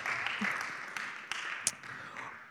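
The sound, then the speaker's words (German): An audience, including children, applauds steadily, a dense wash of hand claps with a few sharper individual claps standing out, fairly quiet and continuous throughout. “Ich wollte Ruth noch einen großen Applaus geben mit allen Kindern, die jetzt sich schon verabschieden”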